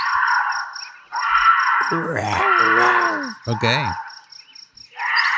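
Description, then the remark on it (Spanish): A bobcat screams in a few harsh, wavering, rising-and-falling wails, recorded by a hunter, over steady buzzing background noise with a rapid ticking pulse; a voice briefly speaks near the end. “Ese es un gato montés gritando.”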